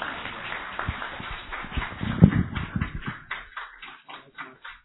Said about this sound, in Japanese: えー、それでは、拍手で先生をお迎えしていきましょう。